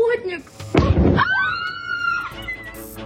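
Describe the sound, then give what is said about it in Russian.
A sudden loud explosive blast bursts out, followed by a high, wavering wail that rises and fades over a second or so, with faint background noise around it, as a drone or missile passes and explodes in a city centre. “Прямо рядом с нами промчались ракеты. Я же сказала, это беспилотник.”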